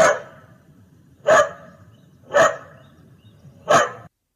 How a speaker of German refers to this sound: Und diese sprechende Box, die konnte nicht nur sprechen, die konnte auch Geräusche machen. Wenn man zum Beispiel gesagt hat, wie macht ein Hund? Der Hund macht.